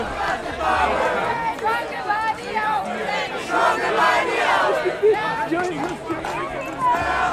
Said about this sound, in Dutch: Oké, we worden nu nog weer de demonstratie ingeduwd.